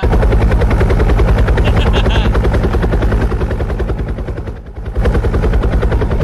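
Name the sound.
helicopter flying overhead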